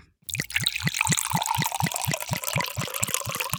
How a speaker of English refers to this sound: Pour yourself a glass of wine and let's go.